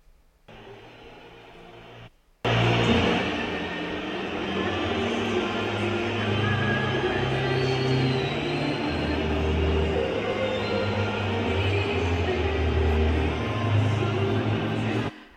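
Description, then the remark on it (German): A large stadium crowd at a football opening match in Frankfurt against Bayern whistles loudly through the singing of the national anthem, a dense continuous roar of shrill whistles and voices that swells suddenly after a brief, quieter opening moment. “also deutlich hörbare Pfiffe eben beim äh, Singen der Nationalhymne.”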